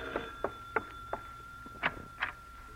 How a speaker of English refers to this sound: And then shortly after 8 o'clock that night, the front door bell rings.